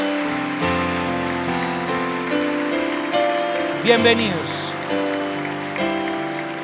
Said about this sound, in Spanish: Un aplauso al Señor por las vidas de ellos.